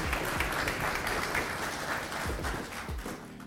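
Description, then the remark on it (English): An audience at a Criswell College chapel applauds a speaker for sharing, a dense wash of many hands clapping at once, fairly loud and sustained throughout without any voices breaking through. “Let's clap our hands for him for sharing.”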